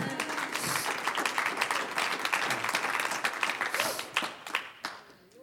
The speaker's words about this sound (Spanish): Un aplauso al Señor.